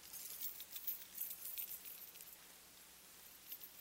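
Many bunches of keys jangle at once as an audience shakes them, a continuous bright metallic shimmer with small clinking peaks, with no one speaking.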